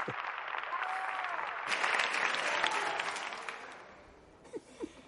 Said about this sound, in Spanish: Salvador activa el altavoz y sonríe a Alberto al oír el aplauso.